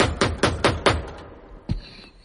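A quick run of five sharp knocks on a door, evenly spaced and fairly loud, followed after a short pause by one more isolated knock, with no voices.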